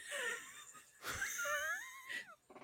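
Wheezy, whistling breaths close to the microphone, a few drawn-out inhales and exhales with a raspy, squeaky edge, fairly loud and with no talking.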